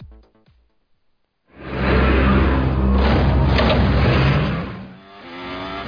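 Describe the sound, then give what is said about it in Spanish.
A racing car engine at the Sochi circuit in Russia fires up on the start-finish straight after a brief quiet moment, then roars loudly with a dense, sustained revving that dips briefly before rising again. No one speaks. “Arrancamos motores en Sochi, partimos de la recta de meta e inmediatamente después nos encontramos un giro a derechas a fondo.”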